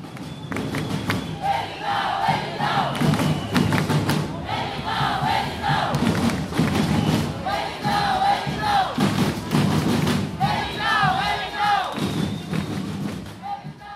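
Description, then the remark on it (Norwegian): A large crowd on a protest march several kilometres long chants in loud, rhythmic bursts, voices rising and falling together in repeated phrases, with thumping drums or stamping underneath, continuous throughout. “Han blir nesten berusa av kampstemninga denne demonstrasjonen gir.”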